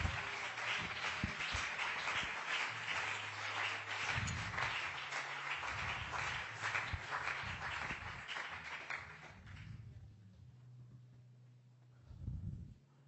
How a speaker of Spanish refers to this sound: Quiere aplaudirlo, hágalo con todo el corazón, es para él.